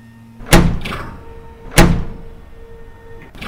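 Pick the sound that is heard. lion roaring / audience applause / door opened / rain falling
door opened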